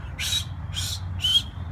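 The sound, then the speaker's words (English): A bird gives three short, bright whistling calls in a steady rhythm, each about a fifth of a second long, over a low background rumble. “So you're available and this availability, a bird will take you out of the thought system like that. A sound like that.”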